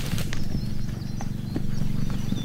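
A herd of horses scuffles in a rivalry, one getting beaten and nipped on the behind, with heavy thuds and shuffling hooves over a dense low rumble, while faint birdsong chirps in the background; the weather has just cleared up after rain.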